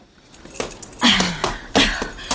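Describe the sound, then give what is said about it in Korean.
Keys jangle in a few bright metallic bursts as a woman pulls them from her bag to open the door of a fried chicken shop, with soft rustling between the jingles and no voices. “여자가 가방에서 열쇠를 꺼내 가게 문을 열려는 순간”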